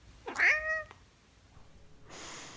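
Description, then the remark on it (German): A male Siamese cat lets out a single loud, drawn-out howl that rises then falls, followed by quiet and then a soft steady hiss of background noise. “Sammy, hör endlich auf zu heulen.”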